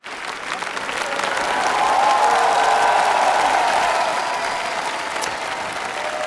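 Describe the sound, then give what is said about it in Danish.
A large audience in a concert hall in Moscow claps steadily, the applause swelling over the first two seconds and holding as a dense, continuous roar, with a few faint cheers mixed in. “der, som man kan høre, er fuldstændig spækket med forventningsfulde tilskuere. Mm. Og de klapper”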